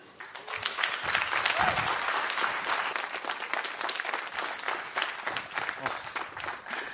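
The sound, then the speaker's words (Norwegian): An audience claps steadily for several seconds to welcome guests, a dense, crackling wash of many hands that stays loud throughout and thins slightly toward the end. “Det var så utrolig deilig å høre litt uh, applaus.”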